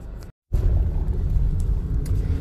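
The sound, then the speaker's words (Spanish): A steady low rumble fills the inside of a moving car, broken by a brief moment of silence near the start before the dense road drone resumes and continues without talk. “La última opción que te voy a dar el día de hoy aquí en el coche en confiancita”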